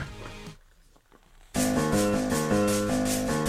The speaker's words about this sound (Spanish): Esto es un ganso. El ganso es un ave acuática que a menudo es confundida con el pato.